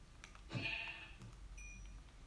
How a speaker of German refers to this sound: Äh, oder ich kriege erstmal all die Schafe, die hier rumlaufen. Mit meinem schönen Netherite-Schwert. Was wollt ihr hier, Schafe?